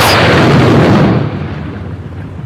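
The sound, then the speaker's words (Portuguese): A sharp, loud thunderclap from a lightning strike during a storm in Brasília cracks across the whole range, then rolls into a heavy low rumble that gradually fades over a couple of seconds. No voices are heard. “pelo menos quatro bolsonaristas que estavam em acampamentos golpistas foram atingidos por um raio durante uma tempestade em Brasília.”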